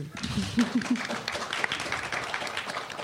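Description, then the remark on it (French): A small audience at a live public event gives polite, modest applause, a steady patter of claps lasting about three seconds, with a few brief voice sounds near the start. “Ah, oh, le bel applaudissement de, de genre de, de carte de golf.”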